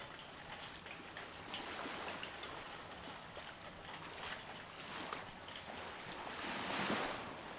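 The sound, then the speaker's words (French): Ocean waves wash steadily with a constant roar, gently rising and falling, then swelling into a louder surge near the end. No voices are heard. “Je m'en remets à l'océan, au tumulte des vagues, à la joie des éléments.”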